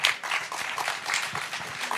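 An audience applauds steadily, many hands clapping in a dense, continuous patter at a fairly even moderate level with no voices standing out.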